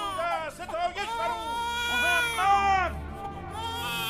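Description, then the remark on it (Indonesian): A newborn baby, just born, whimpers and cries somewhere in a city, its thin, wavering wails rising and falling in several strained bursts that run on without a break. “Dari penjuru kota lainnya terdengar suara bayi merengek, pertanda ada seorang ibu yang habis berjuang untuk mempertemukan anaknya dengan kehidupan baru.”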